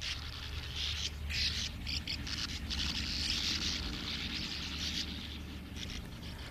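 Sand martins chatter in a busy, continuous chorus of dry, raspy twitters from many birds at once, steady, over a low background rumble.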